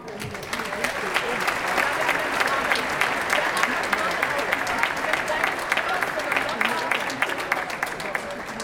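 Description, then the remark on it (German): Sustained audience applause at the 2023 Sportlerehrung (sports awards) of the town of Norderstedt, Germany, held in the Tribüne, a dense wash of many hands clapping at a steady loud level for several seconds, with faint crowd murmur mixed in. “Schön, dass ihr alle hier seid. Euer Applaus.”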